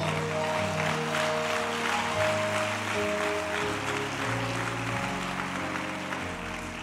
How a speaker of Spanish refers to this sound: Aplaude si quiere al Señor.